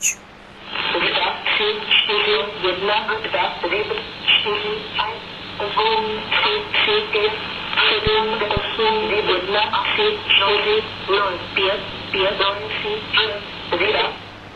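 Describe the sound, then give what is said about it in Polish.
Two shortwave numbers stations, one German and one Czech, overlap and jam each other in a 1990s recording, their thin, band-limited voices reading at once over a steady hiss, continuous and fairly loud throughout. “Bywa też i tak, że stacje numeryczne zagłuszają się nawzajem.”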